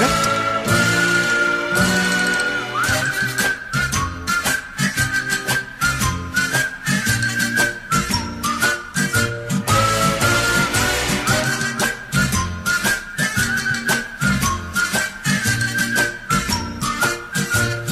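A lively 1968 French pop song intro plays loud, a bright whistle-like lead melody riding over a steady, driving beat and full band, with no singing yet.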